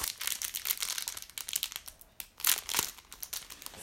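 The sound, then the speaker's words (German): Steady crinkling of the plastic wrapper of a card pack being handled and torn open, with bursts of crackly rustling over about four seconds and no talking. “Gefühlt einfach, äh, Dings da Pack verriegelt. Das lockt nicht verriegelt, glaube ich.”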